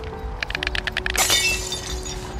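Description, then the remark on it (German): A quick run of about ten sharp, hard taps as a stork, Problemstorch Ronny, pecks on a car's metal in Glambeck, followed by a brief louder clattering burst over a low steady hum. “er Pickt auf dem Auto rum.”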